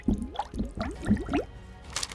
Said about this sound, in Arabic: هل يمكنك عمل فقاعات تحت الماء؟